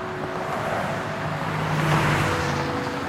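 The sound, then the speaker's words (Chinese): Steady road traffic with cars rolling past, a continuous low rumble of engines and tire noise swelling slightly in the middle, with a faint tonal hum running through it and no voices. “是车水马龙的人声、车声，”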